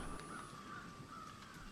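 Faint crows cawing a few scattered times over a steady, low background hum, with no voices present.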